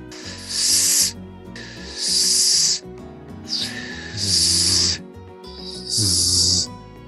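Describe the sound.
A voice produces four separate sharp hissing bursts, each lasting about half a second to a second, with short pauses between them: an English TH fricative with the breath released after the tongue is pulled back, so it sounds like an 's'-like fricative, fairly loud.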